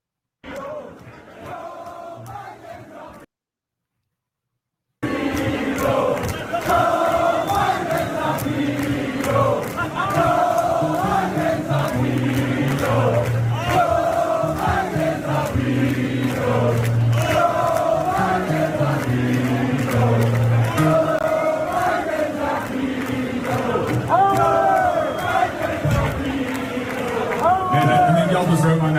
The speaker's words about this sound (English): he was doing a concert this last weekend and look what started breaking out at his concert. This is funny. This was in Scotland, and the crowd starts chanting all kinds of things about Joe Biden.